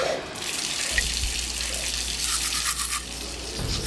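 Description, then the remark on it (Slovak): Water runs steadily from a tap at a prison washbasin, where dozens of prisoners crowd in the morning, a continuous hiss with scrubbing, toothbrush-like strokes layered on top. No one speaks. “Pri jednom umývadle s pár kohútikmi sa ráno tlačia desiatky väzňov.”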